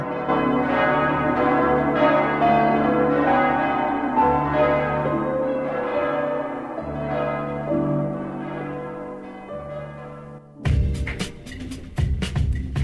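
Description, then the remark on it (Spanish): A large cast bronze church bell, feverishly cast by a boy himself, in Andrei Tarkovsky's film Andrei Rublev, rings loud, its deep, humming tones swelling with each slow strike and overlapping into a dense wash, ending in a brighter, clanging burst of bells. “logrado darle sonido a una construida febrilmente por él mismo”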